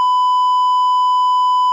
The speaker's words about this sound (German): Wo ist der, wo ist der Piepton?